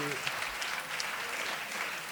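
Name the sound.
audience applause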